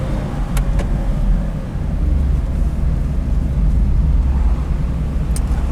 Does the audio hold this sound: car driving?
yes